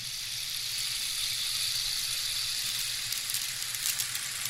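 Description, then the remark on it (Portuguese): A continuous hissing wash of small steel balls or seeds rolling inside a Nepalese ocean drum tilted back and forth, like surf on sand, swelling slightly toward the end. Steady, with no voices. “Quando inclinado para frente e para trás, o tambor produz sons que lembram ondas do mar.”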